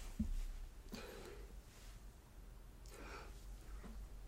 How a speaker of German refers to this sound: Oh, fuck, Mann, ich wollte niesen und es kam und kam nicht.